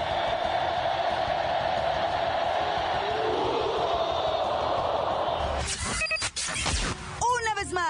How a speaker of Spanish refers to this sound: México podría perder puntos en el hexagonal a Rusia 2018 si no se elimina de los estadios el grito de...